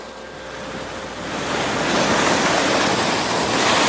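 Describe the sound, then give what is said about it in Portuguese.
Ocean waves crash against the rock a lighthouse is built on, a broad roaring wash of surf that swells louder after the first second and stays heavy, with no voices. “Em alguns momentos eles até desaparecem no meio daquela onda.”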